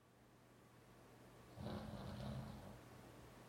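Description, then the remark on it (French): A man asleep on a sofa snores once, a low, rattling rumble that swells for about a second before fading into a quiet background hum. No one speaks. “Il ronfle, de plus en plus fort.”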